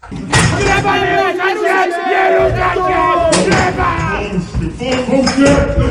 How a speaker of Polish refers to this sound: Wolność dla Bibianki! Wolność dla Bibianki! Do pokoju przesłuchań docierały stłumione odgłosy protestu. Przyjaciele Bibianny Nowok nie odpuszczali.